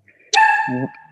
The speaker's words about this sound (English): Sorry, that's my dog.